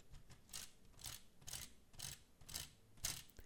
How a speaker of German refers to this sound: Ich habe hier mal so ein kleines Modell mitgebracht und wenn sich die Hinterräder bewegen, klackert der Motor. Achtung! Erstmal die Räder finden.